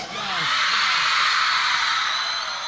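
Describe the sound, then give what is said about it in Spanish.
A crowd of girls screams in a sustained, high-pitched roar that swells and holds for a few seconds. A voice briefly calls out at the start. “Y grito de las chicas.”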